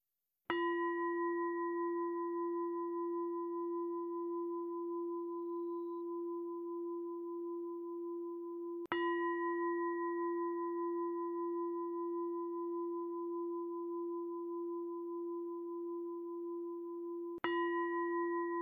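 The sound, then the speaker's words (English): A meditation bell is struck three times, roughly eight seconds apart, each strike ringing out clearly and sustaining a long, resonant hum into the next, with no voices. “And I'm going to ring the bells three times, and I invite you to relax into today's practice.”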